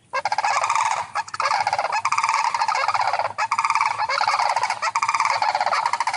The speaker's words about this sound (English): have we heard the sandhill cranes sounds? Do we know what they sound like?